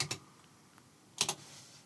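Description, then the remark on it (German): A few quiet, sharp clicks of typing on a computer keyboard, entering a search into the Google search bar, arriving in two short pairs with a faint tap between, against a low background hiss. No one speaks. “Tipp, tipp, tipp, tipp, tipp, tipp, tipp.”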